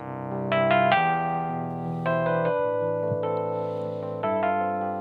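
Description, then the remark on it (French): Bright synthetic piano chords, an Italo piano preset played on a Tyne MK2 keyboard, several sustained stabs changing every second or so, clear with no voices. “Mais quoi C'est un Italo piano”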